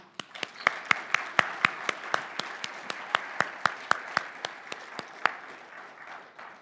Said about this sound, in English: Let's uh, give a round of applause to those that minister us in the Bells Ministry.